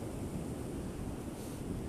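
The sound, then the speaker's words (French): Sea waves wash onto a beach on a sunny day with only a little wind, in a steady, continuous roar of surf, full, with a low wind rumble underneath and no voices. “Vous entendez euh, la mer.”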